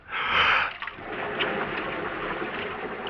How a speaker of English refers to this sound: And then you hear him swimming towards you. You listen to him moving closer and closer.